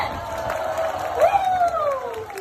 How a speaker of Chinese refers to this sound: 太厉害了，我们尖叫声在这里。